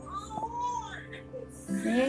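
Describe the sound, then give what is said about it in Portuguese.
A baby girl cries in short, wavering wails that rise and fall in pitch, fairly soft, with a low murmur of room sound underneath. “a que tá com ela, essa que tá chorando”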